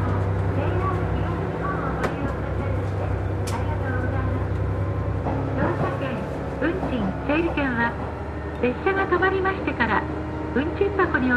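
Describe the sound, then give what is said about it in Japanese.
A train on a roughly 30-minute run from Ishinomaki to Nogawa pulling away slowly at 9:33 in fine weather, heard from a box seat inside: a steady low rumble, then a motor whine that climbs in pitch as it gathers speed, with a voice talking over it at times. “天気良くてね大体30分ぐらいですね石巻から野川まで電車で9時33分ゆっくりと、えー、電車が走り始めました”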